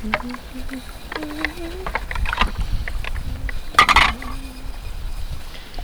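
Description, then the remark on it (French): Dishes being washed in cold water outdoors in chilly but dry weather: irregular splashing and sloshing, with a bright burst of clinking around the middle, while a faint voice murmurs underneath. “Petite vaisselle à l'eau froide.”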